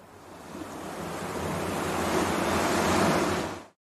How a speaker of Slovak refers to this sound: Kde sa práve nachádzate? V ruchu veľkomesta? tichej prírode, alebo počujete šum mora.